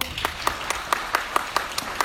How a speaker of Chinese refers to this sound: 但是当你真的要收大额尾款的时候，一定是一对一谈的，能不能理解？掌声通过。